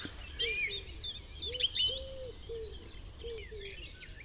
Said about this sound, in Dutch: En de tjiftjaf.